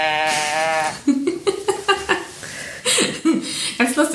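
A jointed toy teddy bear's tilt-activated voice box lets out a loud, bleat-like droning growl, followed by a run of short, choppy bursts that sound like laughter.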